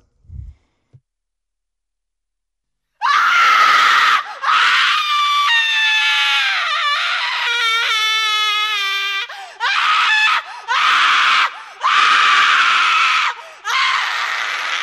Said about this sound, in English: Next one, Scream. It doesn't start right at the start, so it gives you an extra like surprise, a bit of apprehension.